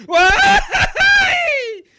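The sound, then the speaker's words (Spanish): A Mexican grito: a loud, wailing shout in two long bursts separated by a brief break, the second sustained before sliding downward and trailing off. “Mejor lanza el aullido esperado y el ay estallado.”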